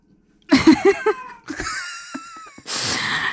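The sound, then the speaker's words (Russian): Fairly loud noises from a domestic cat during a recording: a quick run of short squeaky cries, then longer wavering, moaning meows and a breathy, raspy end, with no talking. “У меня кот, ребята. Это мы уже не можем вырезать.”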